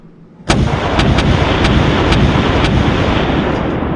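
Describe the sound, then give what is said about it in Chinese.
A heavy bombardment of air cannons fired at zombie animals bursts in after a brief hush: about six sharp cannon blasts crack over a dense, continuous roaring rumble that stays loud to the end. No voices. “一阵狂轰滥炸后，地上布满了被炸碎的动物尸体。”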